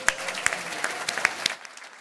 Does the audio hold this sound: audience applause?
yes